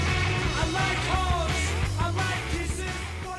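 A full band song plays at steady volume: thumping drums and a heavy bass line drive underneath, with a loud, strained lead vocal riding over the dense mix.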